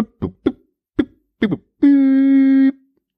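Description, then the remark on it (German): A voice imitates a dial-up modem: five quick clipped vocal bursts in an uneven rhythm, then a loud, steady buzzing hum held for about a second. It is clear, with no other sounds. “Das sollte Modem sein.”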